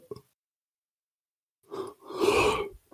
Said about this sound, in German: Ähm, das war also das Gähnen zum Abschluss.